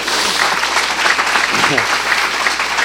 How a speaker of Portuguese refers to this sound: Quantos querem guardar as boas novas de Jesus no coração? Dê um aplauso ao Senhor.